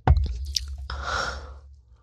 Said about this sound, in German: Was trinkst denn du da? Milch? Das ist Wasser.